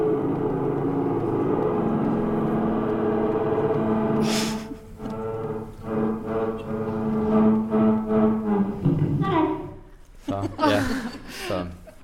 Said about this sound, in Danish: Så, lød, uh, ja, så, så når jeg spillede den for normal hastighed, så, så lød jeg pludselig som et monster. Uh, og det var jo virkelig top dollar dengang, hvis man var, havde sådan en stemme. Så den lød sådan her.